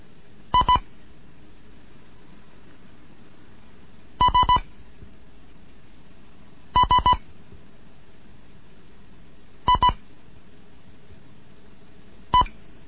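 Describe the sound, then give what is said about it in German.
Morse code beeps from the first lesson of a Morse course sent from Bremen, in a steady mid-high tone: five separate bursts of quick, clipped dits, most of two or three pulses, the last a single blip, spaced by pauses over a faint hiss. “Hier ist Degott 1 Kilo November in Ida 04 in Bremen mit einem Morseunterricht.”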